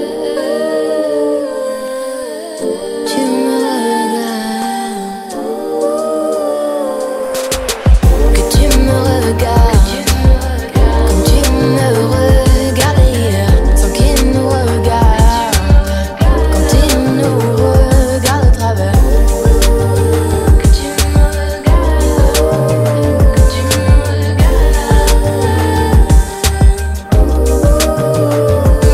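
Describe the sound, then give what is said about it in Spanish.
A pop song, a latest single, playing loud: a soft melodic intro gives way to a full band with a driving beat and heavy bass that carries steadily to the end, with no talking. “suena a lo lejos de … el último sencillo”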